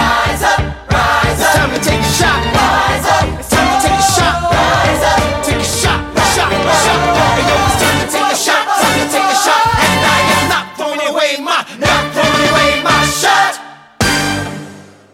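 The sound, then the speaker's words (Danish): A rousing musical theatre ensemble number, a drinking song sung by characters standing and drinking in a tavern, with many voices belting over a full, driving band, loud and continuous before a sudden cut and a final punchy hit. “For det første, de, de står og drikker. De er på et værtshus. Det er en druksang.”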